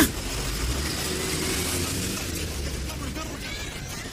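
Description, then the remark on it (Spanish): A sputtering, broken-down car engine idles roughly at a supermarket entrance, a steady low rumble with rattly mechanical noise running continuously for a few seconds, moderately loud. “que anda todos los coches porque se le descompuso el carro en la mera puerta del super?”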